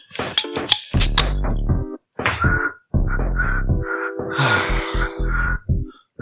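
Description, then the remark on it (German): Someone blows across the mouth of a full drink bottle, trying to whistle, in several breathy bursts. This produces rough, wavering hoots with noisy air rushing through, fairly loud, separated by short pauses. “Hast du gerade versucht, in deine Flasche zu pfeifen?”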